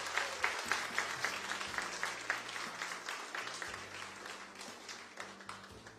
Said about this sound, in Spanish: Denle un fuerte aplauso a nuestra familia.